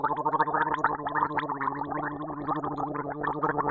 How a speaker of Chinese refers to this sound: 这个声音很像水涌进喉咙的声音